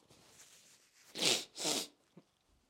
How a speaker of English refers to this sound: I just blow my nose. Excuse me.